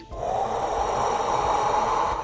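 A long, deep breath drawn in through the mouth as a deep-breathing exercise, a steady airy rush lasting about two seconds, fairly loud with no talking.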